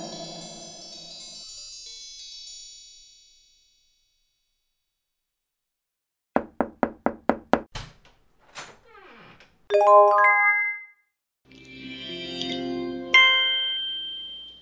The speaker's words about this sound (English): And the sound that you just heard was the sound of the Amazon tap.